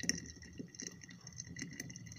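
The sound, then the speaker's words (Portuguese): Brewed coffee trickles and drips through a filter, a soft, irregular patter of tiny ticks and splashes over a low gurgling hiss, faint and steady with no voices. “É o barulho do café escorrendo.”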